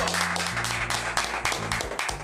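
A steady burst of applause welcoming a guest on a show, dense overlapping claps filling the whole clip, with a low humming musical tone droning underneath and no voices.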